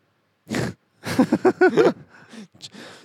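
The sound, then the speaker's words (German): A person does a vocal imitation of the growl of Chewbacca, the Wookiee from Star Wars: a short rough burst, then a longer warbling, throaty roar that trails off into breathy rasps, loud. “das Sollte Chewbacca gerade darstellen.”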